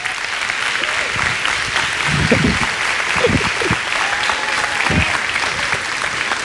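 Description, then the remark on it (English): Steady applause from an audience welcoming guest speaker Pastor Zach Young fills the whole stretch, a dense, even patter of many hands clapping with a few faint voices murmuring underneath. “And so would you please welcome Pastor Zach Young, dear friend of mine.”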